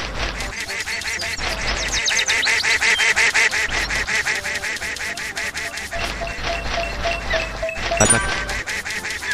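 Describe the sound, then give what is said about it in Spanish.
A video game duck quacks over and over in rapid, loud, overlapping bursts that run without pause for the whole stretch, with a low electronic hum beneath and no one talking. “Y el pato nos empieza a mirar todo”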